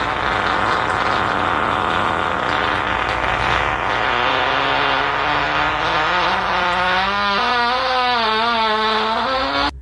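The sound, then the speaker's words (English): A long, loud fart that rumbles steadily for about ten seconds, its buzzy pitch wavering and rising in fluttery ripples toward the end before it cuts off abruptly. “I don't own that fart. That was just a similar one.”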